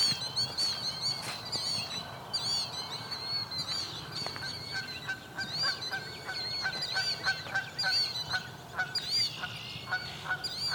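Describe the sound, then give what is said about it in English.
A flock of Canada geese honks continuously, many overlapping calls forming a noisy, restless chorus with no talking. “Here comes some Canada goose.”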